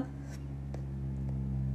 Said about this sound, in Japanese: 聞こえますかこれ。これあのエアコンの室外機の音なんですけれどもなんか部屋ごとどっか飛んでいきそうな、プロペラが、あ、プロペラなんですけどね。そうだね。なんか飛んでいきそうな音ですよね。